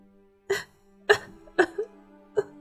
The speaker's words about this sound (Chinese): 不等他说完，女人一阵强烈的咳嗽声。便从身体里爆发了出来。